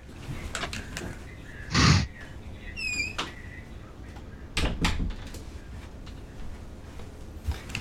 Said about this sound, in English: Well, I'm, uh, I'm going to stand up and close my office door because I'm pretty sure the latest news from Venezuela is getting into the recording. so give me just a sec.